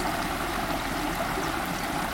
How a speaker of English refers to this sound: I love the rhythms of the waves in the track and how the music and words become increasingly disjointed, my anxiety rising as the song drowns every beach I have ever walked on.